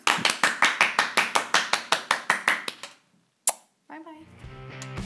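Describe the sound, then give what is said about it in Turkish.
Brisk, evenly spaced applause, about sixteen sharp loud claps in a steady rhythm that trails off, then one lone clap, a pause, and a voice begins talking or laughing. “Alkışlarla kapatıyoruz.”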